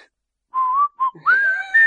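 A person whistles a short, bright jingle: a few sustained pure notes with brief gaps, then a rising, wavering phrase, close and clear with no talking.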